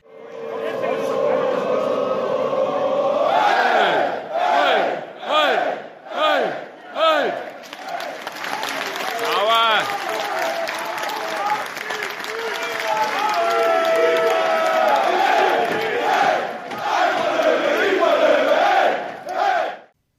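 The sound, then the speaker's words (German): A large stadium crowd of Löwen football fans chants loudly in unison, rhythmic bursts of massed voices rising and falling, with sustained roaring and cheering in between, continuous throughout. “Alleine, wo ich es daheim einfach am Handy angeschaut habe, habe ich mir so gedacht, ja ja, okay, das ist eine gute Atmosphäre und die Einheit ist nicht nur auf dem Feld da.”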